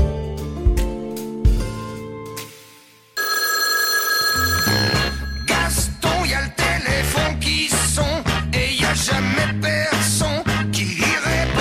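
A telephone rings with bright, sustained bell-like tones for a few seconds, then loud, upbeat music with steady percussive beats takes over. No one speaks.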